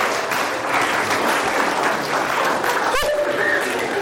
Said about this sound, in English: Well done. And round of applause for a volunteer.